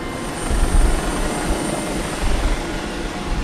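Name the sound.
helicopter taking off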